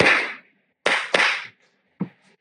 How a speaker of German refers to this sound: Ich würde jetzt hier nochmal klatschen. Gerne. 3, 2, 1.